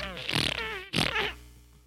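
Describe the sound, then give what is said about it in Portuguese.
Two loud, drawn-out fart sounds in quick succession, the first longer and wobbling in pitch, the second shorter and trailing off into a fading rasp. “Tu não imagina que ela peida, sabe? Tu não imagina que os peidos dela são.”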